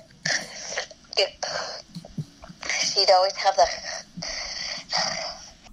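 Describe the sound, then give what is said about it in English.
A voice actor imitates the raspy, phlegmy breathing of a seal girl character in repeated rough bursts, wheezing and gurgling, mixed with a few words of speech. “and sometimes they would do tracks of just the breathing.”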